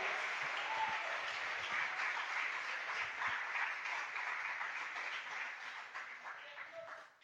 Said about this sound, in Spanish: Oh, dele ese aplauso, pero déselo fuerte, porque tú necesitas adorar al rey.